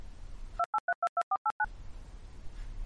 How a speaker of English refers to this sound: This game is often interrupted. Whenever this happens, you'll hear our editor's tone